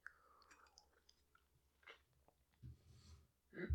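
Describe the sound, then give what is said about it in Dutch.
Quiet mouth noises as someone sips hot tea: small wet slurps and clicks, then a soft swallow and a dull knock near the end, with no talking. “neem even een slokje van meteen”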